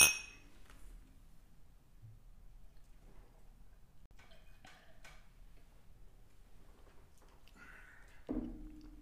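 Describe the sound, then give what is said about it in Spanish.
Glasses of mead clink together once in a toast, a bright, ringing tap right at the start, followed by a long quiet stretch of small ticks and soft handling sounds, with no talking. “Salud.”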